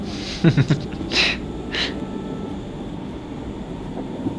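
A train carriage rumbles steadily along the rails, a continuous low roar with a few brief hissing, clattering bursts near the start, even in loudness throughout.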